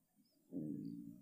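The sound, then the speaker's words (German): A stomach growls with a low, muffled gurgling rumble that rises halfway through and drags on to the end, quiet, with no talking. “Oh, das hat, hat man das gehört? Das war mein Magen.”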